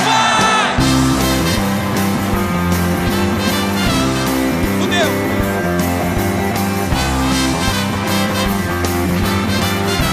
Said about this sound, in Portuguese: Rapaziada da arquibancada, dá um alôzinho pra mim aí, vamos lá! Atenção, agora aquele famoso grito, né? Que até o pessoal lá na Argentina vai escutar a gente. Vamos lá!